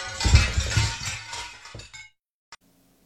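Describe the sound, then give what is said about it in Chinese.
A glass bottle held in someone's hand shatters on a beach in a loud, bright crash, with scattered tinkling shards ringing out and fading over about two seconds, followed by silence and one last small clink. “正在这时，耳边突然传来一声玻璃的碎裂声”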